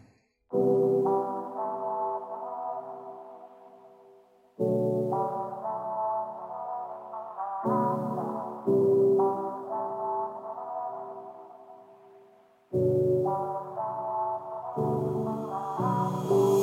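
A song's instrumental opening plays: loud, sustained chords rich in overtones, each struck anew every few seconds and held as it slowly fades, with no voices.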